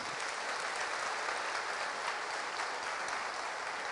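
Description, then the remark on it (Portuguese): An audience claps joyfully for the Lord after a prayer, steadily and continuously, a dense wash of many hands applauding at an even level throughout, with no voices standing out. “Para aplaudir com alegria o Senhor.”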